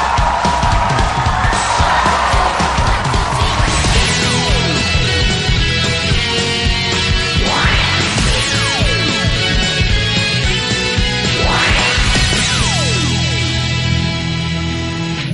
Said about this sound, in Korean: 패널 여러분들 모시겠습니다. 여러분 박수로 환영해 주십시오. 어서 오십시오.